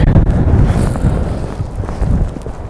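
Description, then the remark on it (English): Strong wind buffets the microphone in heavy, continuous low rumbling gusts, loud, with no voices heard, outdoors on a very windy day while taking photographs. “and uh, because it's so disastrously windy still I'm not going to go up where I was going to go I'm going to try and find somewhere a little bit more sheltered I think”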